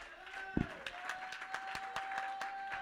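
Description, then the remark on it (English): An audience claps in a steady, fairly quick rhythm, sharp crisp hits over sustained tones of music or singing, with one heavier thump early on. “Oh, let's clap our hands.”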